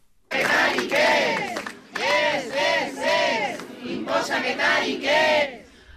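A crowd of protesting Osi Araba workers chants a slogan against impositions ("no a las imposiciones") in unison, loud rhythmic bursts of shouting repeating in short phrases with brief pauses between them.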